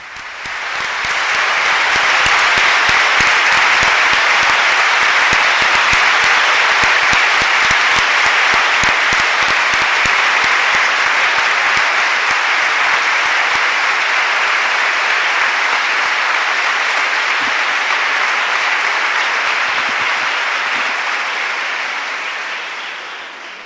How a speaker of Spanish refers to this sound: Impresionante la acogida. Eh, escuchamos esos aplausos eh, que saltan aquí rotundamente en, esta basílica, mientras él ya ha vuelto a pasar por el centro de la basílica y está e sus primeras palabras.